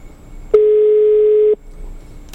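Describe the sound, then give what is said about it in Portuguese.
A single steady telephone ringing tone sounds once for about a second while a call goes out, loud and clear, mid-pitched and unbroken, with only faint background hiss before and after. “Ó, não atende o telefone que os cretinos estão ligando lá.”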